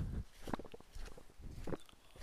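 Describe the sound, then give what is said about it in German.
Several heavy footsteps crunch and thud on soft ground at an uneven pace as someone walks down a steep earthen forest trail onto a small footpath, with faint rustling between steps. “So, ich gehe noch ein paar Schritte und dann muss ich einmal verschnaufen.”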